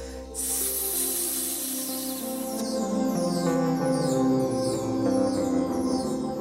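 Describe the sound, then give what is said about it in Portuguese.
A person hisses through their teeth like a snake, releasing air through the mouth in one steady, breathy hiss lasting about two seconds, while lying face down, pressing the hands against the ground and lifting chest and head. It is fairly loud, over continuous background music that keeps playing after it. “Soltem um ar pela boca entre os dentes, imitando o som de uma cobra.”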